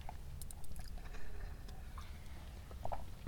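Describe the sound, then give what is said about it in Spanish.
Someone sipping coffee with no talking: faint wet slurps and soft swallowing, scattered small clicks and taps, all quiet over a low background rumble. “perdón, paso para trago de café,”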